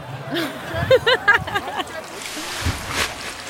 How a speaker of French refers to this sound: Bon, et eh ben mon chéri, je te quitte parce que mon bain coule.